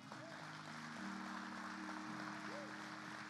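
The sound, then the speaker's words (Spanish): A church audience bursts into steady, sustained applause for the Lord, dense clapping filling the whole stretch, with sustained organ-like tones and a few rising whoops or cheers mixed in. “No sé si alguien puede darle un fuerte aplauso al Señor.”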